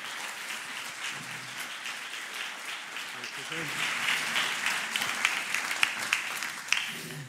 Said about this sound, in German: Wir begrüßen dich wieder ganz herzlich mit einem Applaus.